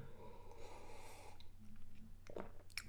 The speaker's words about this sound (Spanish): lo hago aquí en la mañana con mi café. De hecho, déjenme, déjenme, le doy un trago.